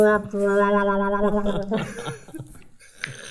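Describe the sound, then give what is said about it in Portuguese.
A voice hums a steady, buzzy, reedy tone for about a second and a half, a mock flute with a rude, fart-like edge, then trails off into chuckling and breathy laughter. “Portanto, uma flauta, uma flauta de pum.”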